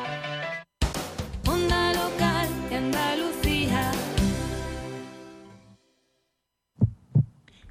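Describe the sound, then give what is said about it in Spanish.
A heartbeat sound effect: a loud, tonal swell fades away, then a pair of deep, muffled thumps beats out a lub-dub pulse near the end. “Sigue con nosotros el ritmo creciente de los latidos del territorio andaluz.”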